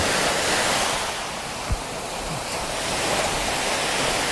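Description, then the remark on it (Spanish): Mediterranean Sea waves wash steadily onto the shore in a continuous roar of surf with gentle swells, with a faint low thump partway through and no voices. “Por primera vez en la vida voy a tocar el mar Mediterráneo.”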